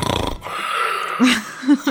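A raspy snore rumbles through a breathy inhale, then a couple of short, low snorting bursts follow in quick succession, with no one speaking.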